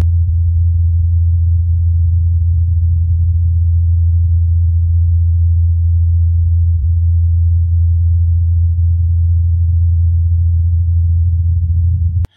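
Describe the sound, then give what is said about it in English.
A steady, low droning hum of the Ingenuity helicopter's spinning rotor blades on Mars, recorded by the Perseverance rover, holds constant for about twelve seconds with no voices, then cuts off abruptly. “And finally, to be the first interplanetary spacecraft whose sound was heard and recorded by another interplanetary spacecraft, Perseverance rover.”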